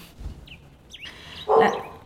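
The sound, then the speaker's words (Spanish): A single loud bark from a dog named Oso, preceded by a couple of faint, high whining chirps against a quiet background. No one speaks. “díganle hola a oso”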